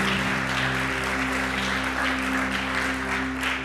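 Sustained audience applause fills the room, a dense, steady wash of clapping at a fairly loud, even level throughout, with a low background hum underneath.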